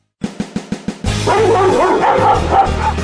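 Several dogs bark and yip loudly together: a quick run of five sharp, evenly spaced barks, then an overlapping, continuous chorus of barking and high yips with no voices.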